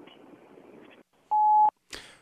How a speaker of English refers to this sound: Hi, this is Lewis Black. Leave a message after the beep.